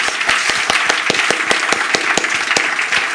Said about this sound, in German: Gebt euch mal einen Riesenapplaus. Einen Riesenapplaus.